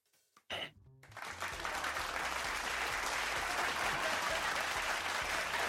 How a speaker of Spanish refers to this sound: Y ya, ya para terminar, el asunto de los. de que ya somos 8 mil millones de personas en el planeta. ¡Viva! ¡Aplausos! ¿Cómo no?